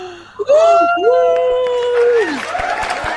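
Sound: children screaming and cheering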